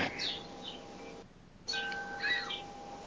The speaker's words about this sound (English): Wind chime? it's beautiful.